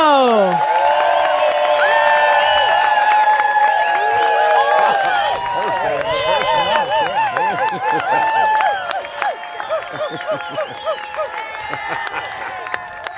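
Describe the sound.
A loud crowd at Todd Stock 2008 cheers, whoops and claps all at once for a Rundgren Radio host, a dense wall of overlapping voices that holds steady for several seconds before thinning out toward the end.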